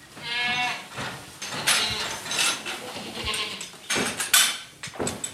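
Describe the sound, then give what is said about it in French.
A goat named Surprise lets out a loud, wavering bleat in response to being called by its name, followed by a few shorter noisy bursts and rustling as the animal moves around. “Et euh, par exemple, si je vous appelle surprise, normalement, elles devrait nous répondre.”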